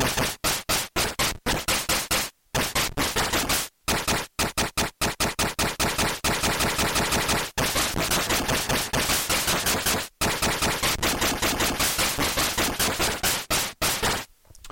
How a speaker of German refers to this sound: da war, wie gesagt, ein Rauschgenerator dabei, dann, wenn ich den angesprochen habe, konnte ich sowas hier machen. Und je nachdem, da kann ich natürlich jetzt die Tonhöhe und so weiter immer noch verändern.